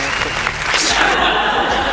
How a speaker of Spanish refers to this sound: se ganó los aplausos. Muchas gracias.